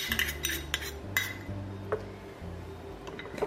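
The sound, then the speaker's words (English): A spoon stirs separated tahini paste, its oil split from the solids, in a container, with a quick run of metallic clinks and scrapes at irregular intervals over a low, steady background hum. No one speaks. “So I'm just going to give that a bit of a stir first.”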